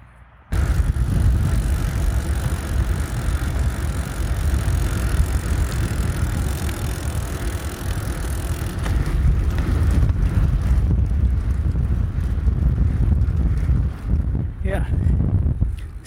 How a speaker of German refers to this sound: So klingt es auf dem Rad. Und ich glaube, ganz schön windig hier in der Pfalz.